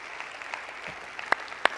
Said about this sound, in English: Amen? Let's give our Lord a clap offering. Would you do that?